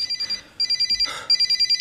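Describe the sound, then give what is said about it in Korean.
A phone rings on and on with a rapid, high-pitched electronic trill in quick repeated pulses, broken by a short pause and a brief burst of noise. No one answers, and no one speaks. “아, 아왜 안 받아?”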